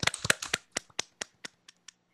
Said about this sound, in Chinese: 那我们先就是先拍手嘛， 耶，欢迎一下。